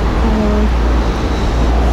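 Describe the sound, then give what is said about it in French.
Outdoor parking-lot ambience with a steady low rumble of car engines and road noise, and a brief humming engine tone early on; a continuous, fairly loud wash with no clear speech. “Et reportage au parking.”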